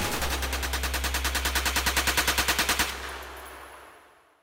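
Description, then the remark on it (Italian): Rapid automatic gunfire from armed men aboard a trailer, opening fire on fugitives near Jonestown, Guyana: a fast, steady burst of about two dozen sharp shots over a low rumble, then stops abruptly and fades into a decaying echo. “Aprono il fuoco senza ritegno sui fuggitivi.”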